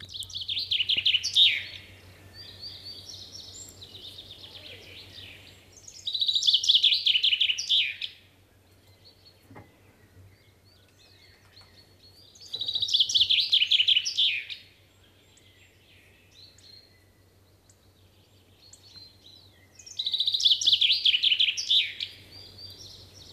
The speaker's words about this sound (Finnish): ja kuunnellaan peippo?